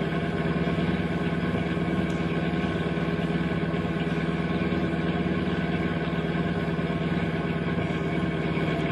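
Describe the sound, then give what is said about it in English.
A steady, droning car engine hum runs unbroken at a constant level as one car pulls alongside another on a highway, the sound of vehicles cruising along at speed, with no voices. “flash your tail light by pushing gently on the brake pedal. Don't stop the car.”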